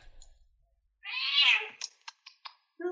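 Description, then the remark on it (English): A loud, drawn-out meow from a cat that needs a lot of attention, followed by a few short clicks and a brief chirp, with quiet background before it. “we have a very annoying kitty here.”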